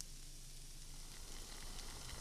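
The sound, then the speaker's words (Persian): Steady sizzling of onions frying in a pan over a lowered gas flame to make fried onions, a continuous crackling hiss with faint pops, no voices. “زیر گازم هم کم میکنم خب شروع میکنم که پیاز داغم رو آماده کنم یه ذره که پیازم سبک شد بهش بله زرد چوبه میزنم”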